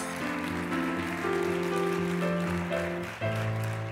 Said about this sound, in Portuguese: Aplauda o Senhor, dá um glória a Deus.